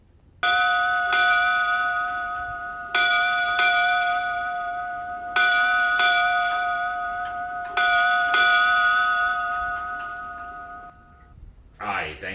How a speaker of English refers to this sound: please give me eight bells.